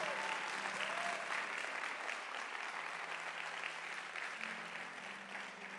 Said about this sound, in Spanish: Vamos, dale una. Si tú sabes que Dios es bueno, dale un aplauso al Señor.